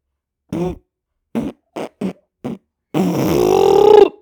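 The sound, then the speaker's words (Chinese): A storyteller's voice imitates a hippo's fart in a children's story: five short, punchy bursts in quick succession, followed by a loud, drawn-out buzzing raspberry that swells and wavers in pitch before cutting off. “像他有一天呐，经过松鼠家的时候，突然就这样子，哦哦，突然好想。好想放屁哦！”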